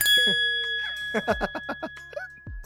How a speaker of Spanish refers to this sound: Sonido, de explosión acá. Ah, no, sonido de idea.